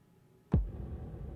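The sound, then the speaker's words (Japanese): A single deep bass drum hit with echo effect, the only drum used in a slow, bright song being built, lands with a sharp attack, then a long, heavy reverb tail lingers and rumbles on after it, alone with no voices. “結構ねエコーが効いたバスドラかなこの音を途中から、えー、追加していきます”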